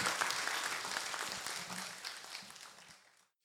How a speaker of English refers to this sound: Can we please give a round of applause for P.E. Moskowitz?